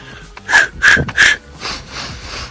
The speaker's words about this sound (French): Je respire. L'air est pur, tout est calme. Je me détends. Trois inspirations, trois expirations.